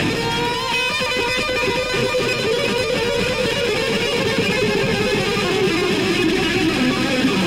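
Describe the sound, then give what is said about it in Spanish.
A fast, dense electric guitar solo tears along at a steady high volume, notes streaming rapidly over a full band backing with no voices. “Se viene la lluvia de dedos. Se pudre todo.”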